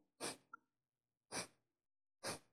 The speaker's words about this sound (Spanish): Entonces, respirar. La exhalación es más fuerte que la inhalación. Y el estómago, ah. cuando, exhales, se hunde.